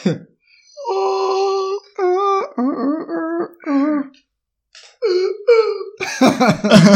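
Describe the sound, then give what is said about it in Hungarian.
A person imitates seals singing as a closing song, a string of warbling, wavering wails and barks in short bursts, fairly loud, ending in rougher, breathier yelps. “Ez a fókáknak az éneke.”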